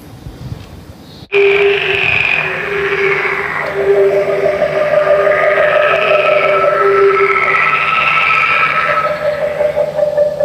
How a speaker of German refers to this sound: Wie laut doch so kleine Frösche sein können hier. Ein schönes Froschkonzert kann man hier auch starten, ja. Das weiß man, wenn man einen in seiner Nachbarschaft hat und abends schlafen möchte.